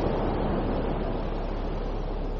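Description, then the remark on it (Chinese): A steady, even rush of ocean surf washing over a beach, a continuous hiss and rumble with no distinct breaking crests and no voices. “感受大海的拥抱，专心静气的聆听着大海的声音。”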